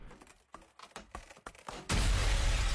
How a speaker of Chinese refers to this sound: 小夫话刚说到一半，A 架子的方向突然传来一声像是玻璃爆裂的声音。